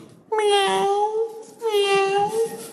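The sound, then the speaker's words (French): A person imitates a cat's meow twice in a row, two drawn-out, wavering vocal cries, fairly loud, with a short gap between them. “Bah, c'est encore le chat, le gardien est rassuré.”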